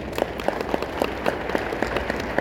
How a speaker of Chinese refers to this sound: 那我们是不是要给六部曲一个掌声？